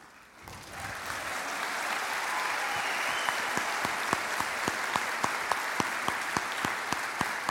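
An audience bursts into applause that swells quickly and holds steady, a dense wash of many hands clapping, with a few sharper individual claps standing out rhythmically toward the end.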